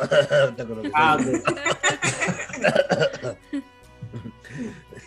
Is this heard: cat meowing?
no